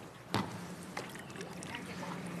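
Oars or a paddle dip into canal water in Venice with two distinct splashing strokes, followed by soft lapping and trickling water, against a steady ambient background.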